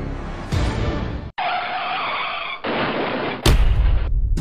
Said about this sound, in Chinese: 视频中的这辆小汽车夹起油门，连一脚刹车都不踩，径直撞上了中央隔离护栏，车头调转一百八十度，停在了超车道上。